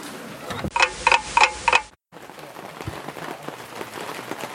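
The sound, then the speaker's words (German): Rain patters steadily outdoors in bad weather, a dense crackle of drops, after a short opening run of four evenly spaced ticking beats and a brief silent gap. “Ja, und da, wie man jetzt hört, äh, vielleicht noch etwas doller, weil ich kurz den Standort wechseln musste, ähm, haben wir dieses Jahr ja nicht so großes Glück mit dem Wetter.”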